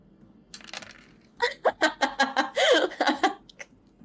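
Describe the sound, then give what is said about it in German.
A handful of six dice rattles briefly, then tumbles across a hard surface in a quick run of sharp clicks and clatters that settle after a few seconds. “Aber diesmal ähm, sind es ja nur sechs Würfel.”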